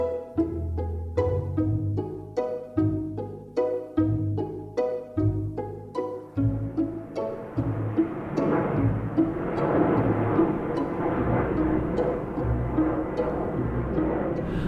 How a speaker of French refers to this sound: Tiens, il y a un avion là. Il y a un avion. Alors celui-ci, il a dû faire demi-tour et il est très haut.